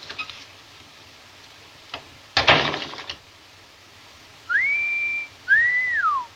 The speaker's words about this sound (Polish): No i teraz, proszę Państwa, zagwizdać, tak? E, ładnie gwizdżesz.